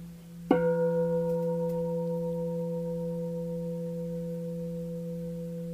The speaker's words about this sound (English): So I'm going to ring the bell. So connecting attention is you, the, I strike the bell. Your attention immediately connects with the sound. The sustaining part is you sustain the attention for the duration of the sound.